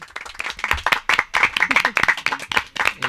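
An audience applauds steadily, a dense patter of many hands clapping at close range with no pauses, filling the whole moment.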